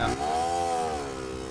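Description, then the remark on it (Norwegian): A motor scooter's engine buzzes past with a steady, droning whine whose pitch rises and then sinks as it goes by, fairly loud, with no voices. “Han med, med scooteren, han vet ikke at det er en veldig seriøs podkast som spilles inn nå.”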